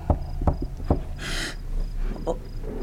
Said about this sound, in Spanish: Oigo llamar en la puerta del sur.